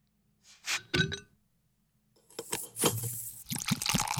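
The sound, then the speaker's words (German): An after-work beer is poured into a glass: a couple of short bursts of splashing liquid, a pause, then a longer, fizzing, gurgling pour with a bright hiss. No one speaks. “Ich glaube, das ist das Feierabendbier.”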